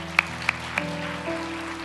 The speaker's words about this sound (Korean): 우리 귀한 귀한 말씀 또한 찬양으로 섬겨 주신 우리 청년분께 우리 다시 한번 감사의 박수 드리겠습니다.